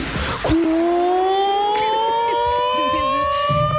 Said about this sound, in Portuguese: Eu vou reproduzir o toque do meu liceu.